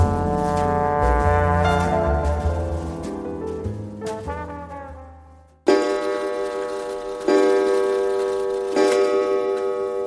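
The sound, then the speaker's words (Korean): Deep, resonant clock chimes ring out alone at 3 a.m., each stroke sustaining and slowly decaying before the next. Several loud strikes follow one another at a measured, unhurried pace. “새벽 3시에 시계 종소리를 들으며 가위에 눌렸다.”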